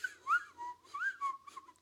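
A person whistles a short, wavering tune, the pitch sliding up and down in a few quick phrases with no talking.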